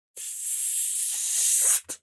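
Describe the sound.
A voice makes a long, steady sibilant hiss like a drawn-out "sss" for about a second and a half, then cuts off and adds one short, sharp hiss burst. Fairly loud, no talking.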